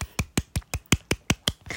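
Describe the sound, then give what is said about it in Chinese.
A single person clapping for themself after speaking alone for an hour, about nine crisp, sharp claps in a steady, fairly quick rhythm, with no voices in between. “我自己给我自己一个掌声。”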